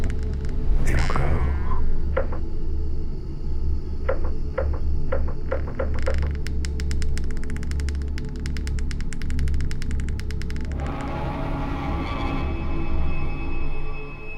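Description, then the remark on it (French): Repeated knocking on a door over a steady low rumble: a few spaced knocks, then a rapid, dense burst of pounding that runs for several seconds before fading back into the drone. “Ça recommence à frapper.”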